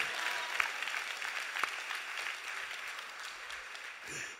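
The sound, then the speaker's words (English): An audience breaks into steady applause, a dense wash of overlapping claps with a few sharper pops standing out, holding fairly even before easing slightly at the end. “Come on, clap even if you don't want to.”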